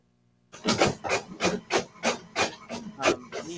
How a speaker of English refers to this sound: Oh no, that's that's Dave's uh, printer. Oh, His coach's printer. He's, he's multitasking there. I was like, I was like, what is that? What's that clicking noise?